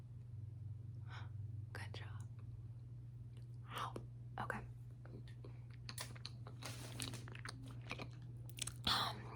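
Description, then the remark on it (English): Chewing mouth sounds of someone pretending to eat fire, wet smacks and crunchy clicks in irregular bursts, soft, with faint whispering and a steady low hum underneath. “I was just eating the fire.”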